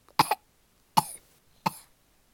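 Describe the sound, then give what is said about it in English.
A voice imitates a witch spluttering and coughing after gulping milk that had soap powder added to it: three sharp coughing bursts spaced about half a second to a second apart, each with a brief rasping tail, with no speech. “The witch began to splutter and cough.”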